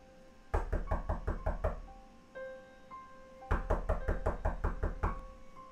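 Two bursts of rapid, loud knocking on a door, each a quick series of sharp raps, separated by a short pause with faint tonal sounds in between; no one speaks.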